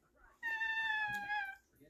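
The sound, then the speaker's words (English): A person imitates the baby-kitten meow of Peanut, a full-grown tabby cat. It is one high, thin, drawn-out mew lasting about a second, sliding slightly downward, clear against a quiet background. “Peanut is hilarious because he's this full grown tabby now, but he still has this like baby kitten meow.”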